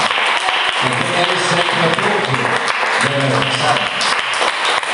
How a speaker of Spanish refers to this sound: Denle un fuerte aplauso al Señor. Denle un fuerte aplauso al Señor.